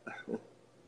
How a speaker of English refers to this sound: Your, your dog is barking back.